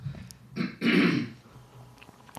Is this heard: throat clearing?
yes